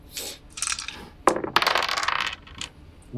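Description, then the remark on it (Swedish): Dice are rolled across a tabletop in a role-playing game, a roll to flee: a quick rattle followed by a longer burst of tumbling clicks before settling, fairly loud with no voices. “Slå ett slag för att fly för att snabbt göra det utan yes.”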